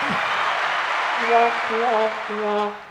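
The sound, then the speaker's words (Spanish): An applause sound effect: a steady, dense wash of clapping from a crowd runs throughout, with some voices calling and cheering over it before the applause briefly dips at the end. “Obviamente, después de reírte tanto, tienes que aplaudir.”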